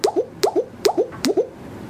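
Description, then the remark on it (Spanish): A low-pitched electronic app cue for a label positioned above repeats four times in steady succession, each a soft click followed by a pair of short rising blips. The cue is clear, with no voices. “Y sonido arriba.”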